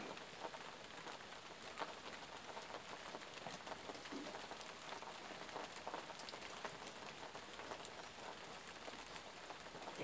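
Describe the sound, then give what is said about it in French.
Steady rain falling and pattering on a surface, a dense continuous hiss of drops with scattered sharper splashes, even in loudness throughout, with no voices. “ce léger courant d'air qui vient accompagner le son de cette pluie, vient bercer votre peau, cette généreuse douceur, cette sensation humide de fraîcheur.”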